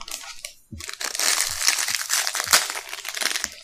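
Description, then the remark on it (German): The wrapper of a Fade Cookie being opened: sustained bright crinkling and crackling of plastic for several seconds, with a few louder crunchy bursts and a brief pause near the start. “Gut, soll ich den Fade Cookie öffnen?”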